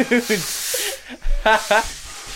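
A rushing hiss of air escapes a large, released balloon for about a second, fairly loud, with short bursts of voices and laughter around it.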